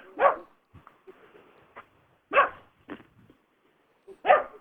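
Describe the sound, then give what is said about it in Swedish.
A dog barks three times in sharp, loud bursts spaced about two seconds apart, with quieter whimpers and shuffling noises in between. “Vi kanske ska prata med hunden här. Ja, verkar, verkar ha en del att säga.”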